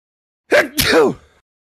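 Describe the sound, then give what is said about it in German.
A single loud sneeze with a sharp intake followed by an explosive, breathy burst, lasting under a second, with silence before and after. “Gesundheit.”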